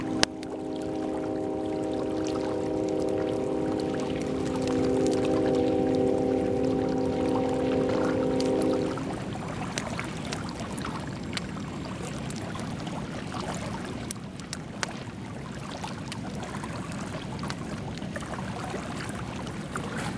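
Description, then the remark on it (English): Steady rushing water runs throughout, joined for the first nine seconds by a droning, train-like hum. Afterward, sharp scattered pops and snaps of crackling fire break through the continuous watery wash. “And when you get that, when you get the fire crackling mixed with the water, mixed with the train noise”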